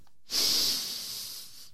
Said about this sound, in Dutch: Nou, dat gaat dus als volgt: adem in door je neus.